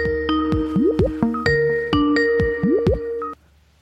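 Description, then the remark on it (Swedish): An electronic telephone tone plays alone as a call is placed to Norway, a rapid sequence of bright beeps and short sliding blips repeating in a steady pattern for about three seconds before cutting off abruptly. “Eh, och så har jag känt i flera år nu, liksom fram tills jag en dag häromveckan ringde till Norge.”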